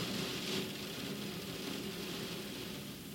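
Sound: heavy rain outside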